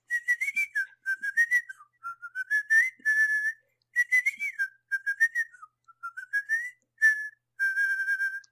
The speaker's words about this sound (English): I could have been whistling my lips first. I was not. I was whistling through my teeth. Yep, I, I confirm. the tune by moving my tongue. It's a skill.